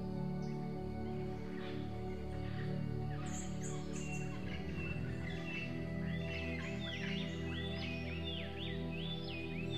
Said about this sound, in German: und du kannst die Geräusche der Dschungeltiere wahrnehmen. Lausche den Klängen des Dschungels. Was kannst du hören?